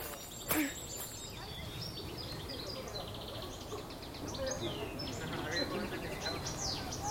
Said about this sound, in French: Tu peux le reconnaître il y a quelqu'un qui t'explique quel est l'oiseau qui chante et surtout si tu les écoutes très bien.